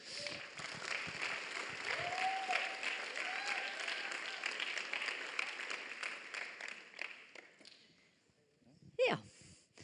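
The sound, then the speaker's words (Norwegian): A room full of people claps steadily for several seconds, the applause fading out near the end, followed by a brief sharp vocal sound like a sneeze or cough. “Kan dere gi dem en applaus?”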